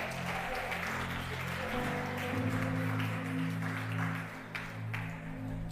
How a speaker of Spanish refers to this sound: Muy bien, ¿pueden darle otro aplauso a Jesús en esta mañana?